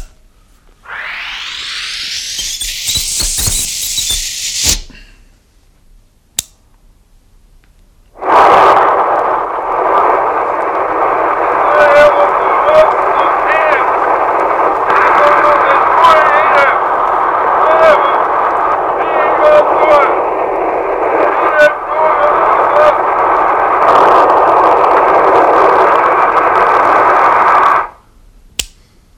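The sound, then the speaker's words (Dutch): A rising electronic whine gives way to a pause, then about twenty seconds of loud, crackling, garbled radio transmission played back from tape, thin and distorted, with voice-like warbling that can't be made out. “De uitzending duurde een paar seconden en was totaal onverstaanbaar.”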